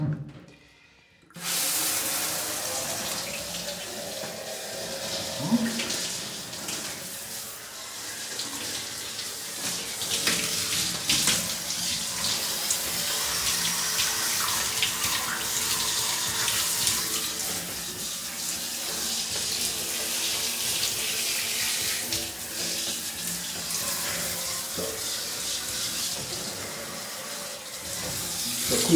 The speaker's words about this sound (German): Gut, jetzt heißt es abduschen.